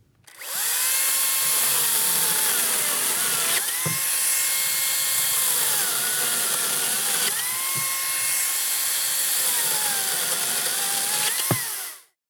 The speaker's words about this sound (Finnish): Kyseessä on Makitan akkuketjusaha.